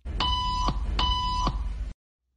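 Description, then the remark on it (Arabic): Two loud electronic buzzer beeps in a clinic waiting room during an experiment, each lasting about half a second with a brief gap between them, harsh and tonal over a steady background rumble before cutting to silence. “جلست البنت بالانتظار شوي إلا وسمعت صوت طنين”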